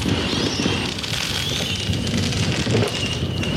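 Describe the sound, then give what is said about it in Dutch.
Decorative fireworks crackle and fizz steadily across a neighborhood in the Netherlands during a fireworks ban, with faint whistling streaks rising over a continuous outdoor hiss; no firecrackers, no voices. “Het is wel mooi siervuurwerk, maar hey, als er een vuurwerkverbod is”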